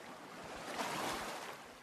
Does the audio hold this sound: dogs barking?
no